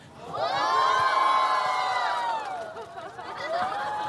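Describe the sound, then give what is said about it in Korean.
A crowd at a KBS Cool FM radio show erupts in loud, high-pitched screaming and cheering, a dense sustained roar of many voices that dips briefly near the end before surging again, with no clear speech over it. “여러분들 그 소리 지르시는 마음 알거든요.”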